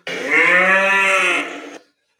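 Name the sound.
cow mooing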